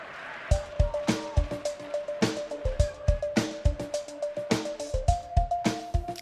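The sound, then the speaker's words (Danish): A short, upbeat jingle for the Danish radio show Rød Aalborg plays loud: steady punchy drum hits under a bright, bouncy synth melody, with no voices, filling the whole stretch. “så I får lige en jingle sat på her”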